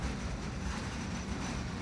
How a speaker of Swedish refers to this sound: Parallella järnvägsspår dyker upp vid sidan av tåget och det saktar ner en aning.